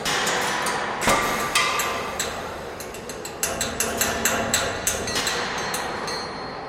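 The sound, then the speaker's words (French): Metallic clanks and knocks from a gigantic moving sound sculpture, with a ghost train hidden inside and visitors walking through it, ring out at irregular intervals over a steady mechanical rumble, some strikes sharp, others softer, with clusters of quick clatters. “Les premiers visiteurs déambulent dans la gigantesque sculpture mobile et sonore qui cache un train fantôme dans ses entrailles.”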